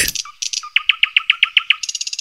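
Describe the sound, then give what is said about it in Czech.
A nightingale sings with no voices: a quick burst of notes, then a steady run of evenly spaced, loud whistled pulses ending in a fast high trill. “Sokol třeba tohle nikdy nezaspívá tak hezky jako Slavík.”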